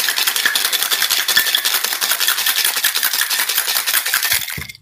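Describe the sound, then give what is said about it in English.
A cocktail shaker full of ice and Fernet Branca is shaken hard and fast for about five seconds, a dense, bright rattling of ice against metal that stops abruptly, with no talking. “And a lot of ice. And shake it.”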